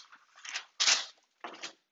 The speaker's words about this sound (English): That was my big dramatic paper turn because I did have to write notes on this.